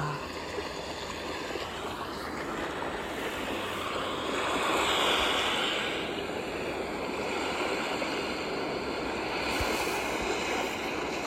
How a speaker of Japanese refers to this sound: では最後は海の波の音を聞いて皆さんもワックスしてみてください